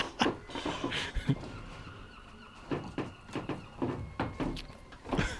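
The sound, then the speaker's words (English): A window being closed: a run of short clunks, knocks and scraping slides over several seconds, fairly quiet with a faint steady hum behind, no voices. “Um, I just quickly got to close this window because there's, yeah.”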